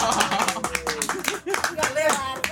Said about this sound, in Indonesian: Jadi tepuk tangan dulu, tepuk tangan.